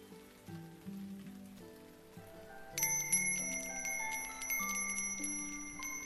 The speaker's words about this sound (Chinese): 他还是很喜欢抱着小爪子，躺在风扇旁的榻榻米上，听着窗外的雨声和假期的风铃。